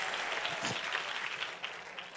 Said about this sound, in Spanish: Dele fuerte ese aplauso al que vive y al que reina por los siglos de los siglos.